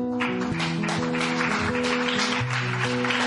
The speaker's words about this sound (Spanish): Un aplauso a todos ellos, muchachos.